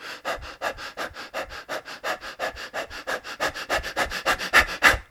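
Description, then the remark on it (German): Rapid, shallow hyperventilating breaths, as in panic, pant in and out mainly through the mouth, about four or five per second in a steady rhythm. Moderately loud, with no talking over them. “Ein anderer Bereich, wenn wir in diese panische Situation kommen, ist, dass wir anfangen zu hyperventilieren. Das bedeutet, sehr, sehr schnell zu atmen, flach zu atmen, hauptsächlich durch den Mund zu atmen.”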